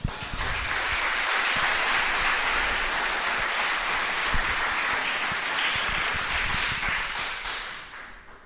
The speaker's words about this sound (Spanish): Dale un aplauso al Señor en esta tarde.